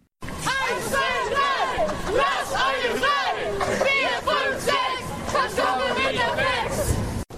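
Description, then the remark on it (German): A protest crowd at a rally in Freiburg, Germany, demanding freedom for Eule, chants together, many voices rising and falling in a steady rhythmic pattern of loud shouted syllables that carries on without a break for several seconds. “Hallo, wir sind eine Kundgebung, die Freiheit für Eule fordert.”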